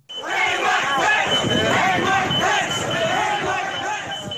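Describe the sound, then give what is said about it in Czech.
A large, angry crowd at the Capitol shouts and chants in unison "hang Pence", a loud, dense roar of many voices rising and falling in rhythmic surges throughout, with a steady high whistle-like tone above it. “Dav si pro viceprezidenta došel do kapitolu a dokonce křičel oběsit pence, oběsit pence.”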